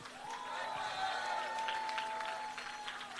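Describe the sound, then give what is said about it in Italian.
An audience applauds three young band frontmen steadily for about three seconds, a dense, even clatter of many hands, with a faint sustained hum running underneath. “Un grande applauso.”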